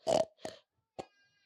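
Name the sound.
voice imitating pig grunts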